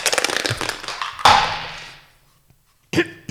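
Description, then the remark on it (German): Dice rattle in a rapid burst of clicks, then land with a sharp clatter that rings out and fades; after a pause, a few more loud clicks follow. “Ich darf würfeln.”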